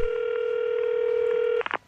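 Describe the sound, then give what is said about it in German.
A steady, loud telephone tone holds for over a second, then breaks into a quick flurry of short dialing beeps, like a number being punched in, played as a radio jingle. No voices. “Ich spiele einen Jingle, da hast jetzt drei Sekunden Zeit, das mit dem Radio zu machen”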